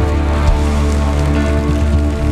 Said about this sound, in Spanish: Oh, un aplauso a Jesucristo.